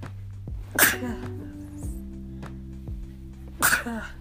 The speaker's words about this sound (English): that is me sneezing, sorry.